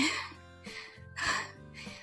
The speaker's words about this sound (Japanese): はぁはぁする。めちゃくちゃはぁはぁする。